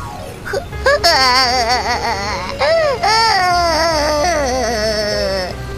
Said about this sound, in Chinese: 大狼和小狼坐在路边哇哇哭。